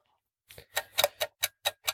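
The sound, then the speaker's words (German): An egg timer ticking in a quick, steady rhythm: about seven crisp, bright clicks at even intervals, fairly loud, with no one talking over them. “Genau, wir haben jetzt hier die Eieruhr.”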